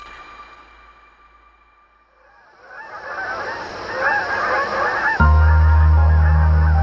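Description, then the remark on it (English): Canada geese honk in a busy, overlapping chorus that swells louder over several seconds, then a deep, steady low tone cuts in abruptly beneath the calls near the end. “Angry Birds: Canadians vs. Canada Geese”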